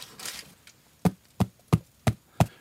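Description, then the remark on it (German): Five evenly spaced knocks on the crust of a bread loaf to check that it is baked through, each a dull, hollow thump, after a brief soft rustle at the start. “Diesen schönen, hohlen Klang Dadurch merkt man, das Brot ist schön durchgebacken, wenn das schön hohl”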